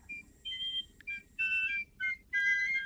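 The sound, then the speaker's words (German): A shrill, high piccolo fife pipes a short tune in several quick phrases with brief pauses between them, clear over a low background rumble. “Die ganze Nacht pfiffen sie.”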